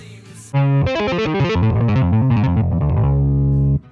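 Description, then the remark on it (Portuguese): A heavily distorted electric bass plays a quick, busy riff of shifting low notes, loud and upfront, ending on a sustained growling note before cutting off. “o …, o …, … e o …, que dizem ser de onde ele tirou a ideia da distorção no baixo dele.”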